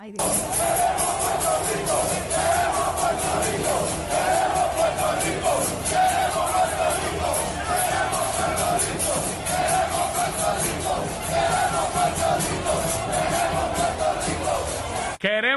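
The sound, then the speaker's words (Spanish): A large crowd of fans chants and yells in unison, celebrating their team's 10–0 win over Israel last night, a loud, sustained roar of many voices with rhythmic shouting and whoops that continues steadily throughout. “estaban celebrando el que pues le ganaron 10 a 0 Israel y, formaron una algarabía brutal ahí, todos ellos, ah.”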